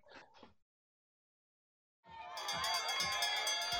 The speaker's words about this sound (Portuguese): Bom, nós estamos ouvindo, infelizmente, o sino anunciando o fim do nosso podcast hoje com uma grande atleta, hoje treinadora Rosemar Maria Coelho Neto.